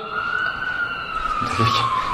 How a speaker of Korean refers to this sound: 지금 사이렌 소리가. 그렇죠?